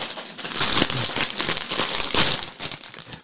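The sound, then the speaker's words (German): A packet of balsamic vinegar crisps crinkles and rustles continuously for a few seconds, with bright, crackly plastic noise and small sharp crunches, no voices present. “ich pack jetzt gleich mal, ich, ich bin jetzt, ja, bin jetzt durch mit, ich, ich, ich gehe wieder zu meinen Balsamico-Chips über, weil ich mich da, glaube ich, nicht so arg verschlucke.”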